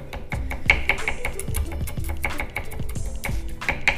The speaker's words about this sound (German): Halbiere sie. Viertel sie. Und auch hier hacke ich mir die wieder in kleine Streifen, die ich dann wiederum zu kleinen Würfeln schneide.